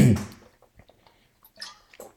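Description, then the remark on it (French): A wet sip of water followed by a few soft swallowing and mouth sounds, quiet and intermittent, with no talking. “Petite gorgée d'eau, c'est important.”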